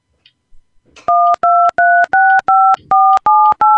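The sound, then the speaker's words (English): A rapid series of ten touch-tone keypad beeps, each a short steady dual-pitched tone with brief gaps, loud, preceded by faint handling clicks, as a 10-digit phone number starting with the area code is entered on a phone keypad. “please enter the 10-digit phone number we called you on, starting with the area code.”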